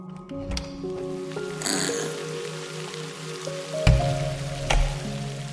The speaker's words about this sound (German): Das kleine Schweinchen läuft bereitwillig an der Leine neben dir her und auch der Regen scheint ihr überhaupt nichts auszumachen. Im Gegenteil, sie reckt ihren kleinen Kopf in die Höhe und lässt sich die Tropfen übers Gesicht laufen.